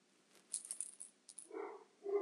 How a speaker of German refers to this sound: Ähm, ja, gerade mein Hund, falls man ihn hört.